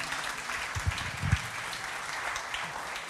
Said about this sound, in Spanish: Bienvenida, qué gusto. Vamos a darle un aplauso también de bienvenida.